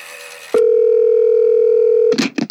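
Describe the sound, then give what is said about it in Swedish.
A single loud, steady telephone ringing tone of an outgoing call to someone at the firm Redpill Lean Pro holds one pitch for about a second and a half, then stops as a voice briefly starts speaking. “Så vi tar och ringer upp”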